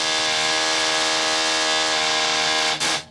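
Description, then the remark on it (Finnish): A loud, steady mechanical whine from a renovation workers' power tool, droning with a buzzy, harmonic-rich tone for about three seconds, briefly dipping near the end before revving back up. No one speaks. “miksi remonttimiehet tulevat niin lähelle”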